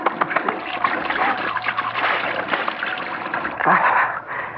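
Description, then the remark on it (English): A person splashes water onto their own face with cupped hands, a steady run of wet splatters and trickles and a louder splash burst near the end. “I'm going to splash some water on my face.”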